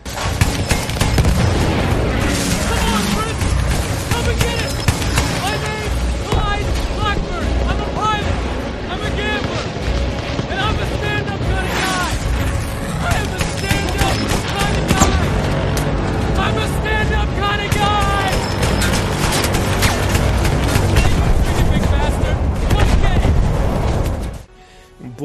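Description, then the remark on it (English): Loud, relentless flak cannon fire in a video game, shooting at zeppelins, with booming explosions, a dense wall of rapid shots and blasts for about 25 seconds, voices buried in the din, cutting off abruptly at the end. “and then you crash into one of the zeppelins, and you have to charge through it and take over the flak cannon and just scream your head off while you're shooting it.”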